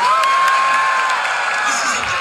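A large audience of developers in the United States at a live keynote cheers loudly and continuously, with whoops and excited shouts rising over a dense wall of crowd noise, sustained without pause as if reacting to a big announcement.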